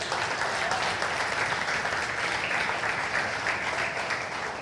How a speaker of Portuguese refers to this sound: Eu quero que vocês aplaudam a Deus por isso.